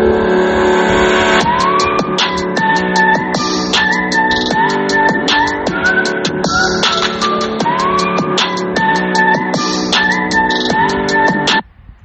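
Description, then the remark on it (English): A loud electronic alarm, a person's own alarm going off, blares on its own, cycling through rapid pulsing beeps and rising, wavering tones in a repeating pattern for about ten seconds before cutting off abruptly. “was my alarm going off.”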